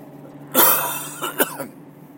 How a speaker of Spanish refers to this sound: He tenido que hacer otra pausa, me vais a perdonar, pero de verdad que, tengo un poco de tos. Estoy constipado también y, todo influye.